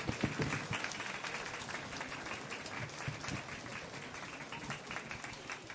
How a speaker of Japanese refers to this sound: ここでもうお二方ゲストの方に加わっていただきたいと思います、はい、えー、ぜひ大きな拍手でお迎えください松原市長の沢井博文さんそしてスケートボーダーの西谷矢椛さんです